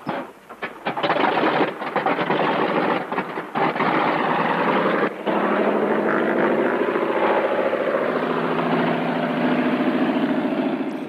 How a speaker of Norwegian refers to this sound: så det er noen sånn sekvens hvor et eh, sjøfly kommer da og lander eh, på en innsjø, og ut kommer Asbjørn Krag.